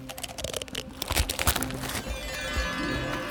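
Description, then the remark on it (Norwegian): Shells being cracked open by Sigmund the wolffish, who crushes all the shells that were found, eats the insides and spits out the pearls: a run of sharp crunching and crackling snaps, irregular and fairly loud, with brittle crinkly textures between the louder cracks and no voices. “Steinbiten Sigmund knuste alle kjælene de hadde funnet.”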